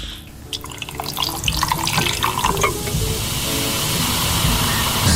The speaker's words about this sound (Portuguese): É Esse é o isolado, né? Pronto. Só abrimos a lata, mais nada. Agora, no próximo, há gelo a cair. Cá está.